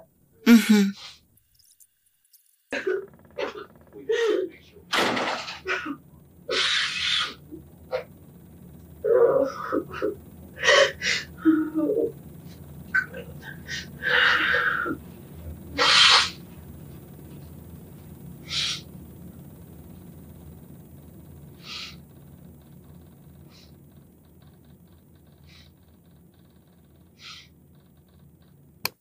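Sharp, ragged gasps and heavy breaths come close and loud at first, then gradually ease into slower, quieter breathing that fades away over the second half, with no talking.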